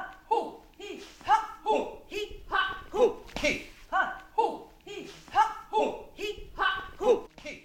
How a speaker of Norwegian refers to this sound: Lyden du hører i bakgrunnen, er de fire som varmer opp for dagen sammen med ….